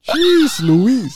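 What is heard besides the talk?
cat meowing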